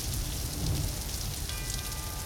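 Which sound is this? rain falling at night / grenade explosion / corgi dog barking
rain falling at night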